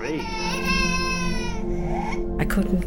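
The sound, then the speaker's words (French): A baby wails loudly and steadily, a high, strained cry that holds for over a second and a half, breaks briefly, then starts up again in sharp sobbing bursts. “Plus il récitait ses prières, plus le fantôme du bébé hurlait.”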